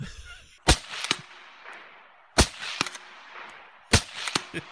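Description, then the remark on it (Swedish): Three sharp gunshots spaced a couple of seconds apart, each followed by a rolling echo and a few smaller cracks, sounding outdoors with no talking. “Pew, pew, pew, pew.”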